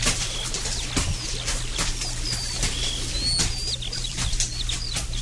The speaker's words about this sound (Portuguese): Andando por este lugar, ouvindo cantar de tantos pássaros